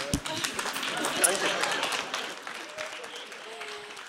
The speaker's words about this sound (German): Genau, da wird schon nochmal geklatscht.